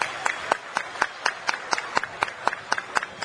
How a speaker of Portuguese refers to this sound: E peço a todos vocês aí um aplauso para ele,